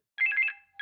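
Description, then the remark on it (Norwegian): An electronic telephone ringtone trills in a rapid warbling burst, pauses briefly, then starts again, clear with no one speaking. “Jeg tror jeg får to innringere samtidig som er kjempeinteressert i å snakke om været på sin plass.”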